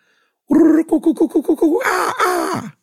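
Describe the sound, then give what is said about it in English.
A voice imitates the jungle bird call that a pet bird named Dolly was taught to do: a held hoot, a quick run of about eight rising-and-falling whoops, then a louder, brighter wavering cry. No one speaks. “like a jungle bird.”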